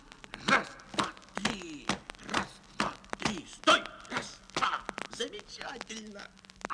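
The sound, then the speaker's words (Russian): Rapid, uneven stamping of marching footsteps, fairly loud, with voices sounding over and between the steps, as listeners march on command. “Ну, шагом, марш!”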